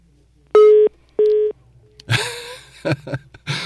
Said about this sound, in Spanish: Se fue la señal del celular, pero bueno, vamos a, vamos a reconectar.